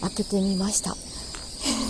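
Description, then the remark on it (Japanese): A steady, dense chorus of evening birdsong drifts in from outside, continuous high chirping filling the background while a person speaks briefly in the foreground. “鳥の声がすごいので、”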